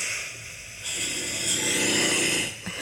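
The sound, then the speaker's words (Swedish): A loud, raspy snore, recorded at 4:34 in the night, swells from a quieter start into a long, rough inhaling rumble, with no one speaking. “Snarkning det är mina favoritljud. Ska vi se om ni har något riktigt bra snarkljud.”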